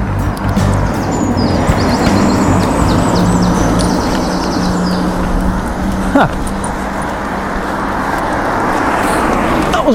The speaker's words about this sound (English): one of those electric cars. Not that one, one before.